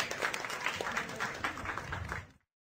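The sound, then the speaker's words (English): A burst of steady welcome-back applause from fans at Fuddruckers on 59 and Wesleyan during a Monday night Texans Radio show, many hands clapping in a dense, continuous patter for a couple of seconds before it stops abruptly. “well, thank you for that unsolicited welcome back applause here at Fuddruckers 59 in Wesleyan.”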